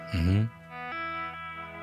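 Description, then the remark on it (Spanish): An effected electric guitar note opens loud with a sweeping, vowel-like wah filter, then settles into quieter sustained tones with a soft new pluck midway, heard on its own. “Si es como modula, como tipo wah.”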